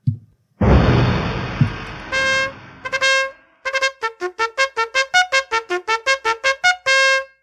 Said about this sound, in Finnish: Ei kai siellä kuorsaa joku, ihan niin kuin tänne kuuluisi ääntä. Voi voi, herätetäänpä.